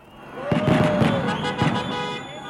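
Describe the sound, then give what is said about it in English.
Several sharp fireworks bangs burst out in quick succession over a loud, steady street din, with crowd noise, a faint horn-like tone, and scattered voices, during the Dodgers World Series street celebrations in downtown Los Angeles on October 27th, with hundreds of people in the streets. “Hundreds of people in the streets, fireworks, burnouts.”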